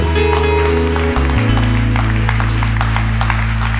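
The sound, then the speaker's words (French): An audience applauds to acclaim Jesus in a steady, dense patter of clapping, carried over sustained low organ-like chords that hold and shift throughout. “Je n'ai pas dit d'applaudir, j'ai dit acclame Jésus.”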